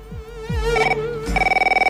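A telephone rings with a bright, electronic trilling tone, repeating in rapid pulses and growing into a steady warbling ring near the end; no one speaks over it.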